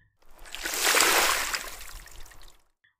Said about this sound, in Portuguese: Você é muito má! gritou Dorothy, e com isso ela jogou um balde d'água em cima da bruxa.